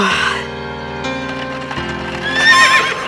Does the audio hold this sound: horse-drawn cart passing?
yes